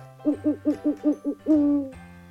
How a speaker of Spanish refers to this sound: Mientras el búho ululaba indicando el comienzo del nuevo año escolar